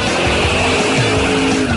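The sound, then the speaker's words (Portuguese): A short jingle for the Band Motores segment on Band News radio, built from motorsport sounds: a roaring race-car engine with rising and falling pitch and squealing tires, loud and dense throughout, with no voices. “Roda a vinheta do homem.”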